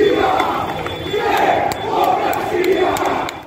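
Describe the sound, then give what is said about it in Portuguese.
A crowd roars a sustained battle cry, many voices shouting together in loud, surging waves with sharp accents breaking through the steady din. “E ele explode um grito cheio de multidões.”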